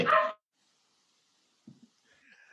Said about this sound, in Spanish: Voy a apagar el micrófono porque están ladrando mis perros y ahorita les sigo.